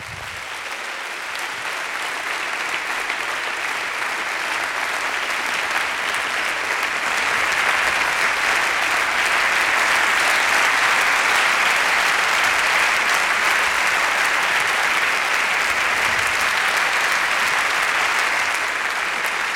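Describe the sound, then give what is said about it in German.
Sustained audience applause for the speakers, thanking them for coming, a dense wash of many hands clapping that swells slightly in the middle and holds steady for about twenty seconds with no talking. “Das gibt uns die Chance, den Damen und Herren einen Applaus äh, zu spendieren dafür, dass Sie hier waren in solchen Zeiten.”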